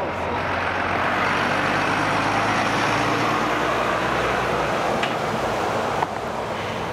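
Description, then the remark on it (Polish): Steady, loud roar of heavy trucks passing on a street with traffic lights, with a low engine rumble throughout and a brief hiss near the end, like an air brake. “bo osobówki jak przejeżdżają, to, to nie szkodzi, ale te samochody ciężarowe, to e, mimo, że jest światła, są światła na drodze, na ulicy, e, to e, te samochody nie patrzą na prędkość z większą prędkością i właśnie jest ten, ten, ten wstrząs.”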